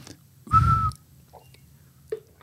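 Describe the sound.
A person whistles a short, steady high note, imitating a monotonous, squeaky bird call, followed by a couple of brief, faint chirps. The whistle is fairly loud, with breathy noise underneath.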